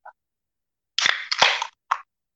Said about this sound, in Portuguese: Eu vou abrir outra cerveja.